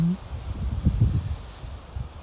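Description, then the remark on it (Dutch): Strong wind buffets the microphone in rough, low rumbling gusts that swell loudest midway, then ease into a steadier whoosh with occasional flare-ups, unbroken with no talking. “Oh, het gaat nu wel heel hard waaien.”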